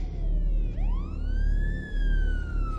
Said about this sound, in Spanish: Fuera llegan un coche patrulla y el coche de Brett.